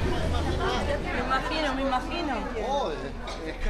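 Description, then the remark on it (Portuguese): Lively chatter from many overlapping voices on a busy tourist street in Bairro Alto, Lisbon, Portugal, a continuous murmur of conversation at steady loudness with a few voices briefly rising above the crowd. “Estamos no bairro Alto, zona de pressão profunda dos arrendamentos ao dia.”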